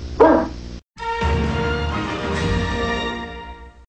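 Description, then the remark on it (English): A dog named Boo Boo, being told to sit, gives one loud bark, then after a brief pause a sustained, droning tonal sound carries on steadily to the end, with no talking. “Good dog.”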